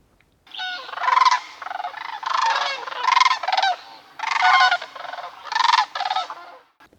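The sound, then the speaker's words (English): A sandhill crane calls in a series of loud, rolling, trumpeting bursts, about six in quick succession with brief gaps, clear with no voices or other sounds, in or around the Matheson's Wetlands Preserve in Grand County. “Until this development happens, if it ever does, we'll have to settle for the lilting call of the sandhill crane floating in or around the Matheson's Wetlands Preserve.”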